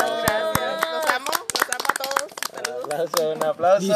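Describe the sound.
Scattered hand claps for an 18th birthday ring out over lively, overlapping voices, the sharp slaps irregular and fairly loud, mixing with cheering and chatter throughout.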